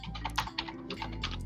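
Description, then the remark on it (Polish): A file rubbing back and forth in quick, uneven strokes, each a short rasping scrape, with no talking. “To jest dźwięk pilnika.”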